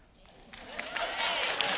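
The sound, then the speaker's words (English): A group of Wisconsin women clapping, the applause starting faint and quickly swelling into a steady, dense patter of many hands that stays loud to the end. “That's them Wisconsin women clapping over here.”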